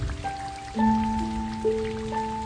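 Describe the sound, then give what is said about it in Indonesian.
Steady rain patters on a surface in a constant wash of noise, while soft sustained musical tones ring out on top, shifting pitch every second or so. “Hujan datang menyerang tanpa tapi membingkai ingatan tanpa tepi.”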